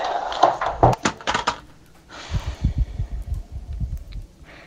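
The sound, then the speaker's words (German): A drawer slides and knocks with a few sharp wooden clacks, then a low, rumbling scrape of movement with soft repeated thuds. The sounds are moderately loud, with no talking. “Die Schublade.”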